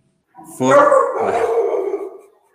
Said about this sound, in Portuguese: Depois você regrava essa parte que o cachorro tá latindo aí.